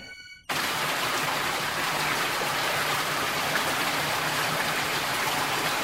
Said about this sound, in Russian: Сильный поток воды вырвался из шкафа и помещение сразу затопило.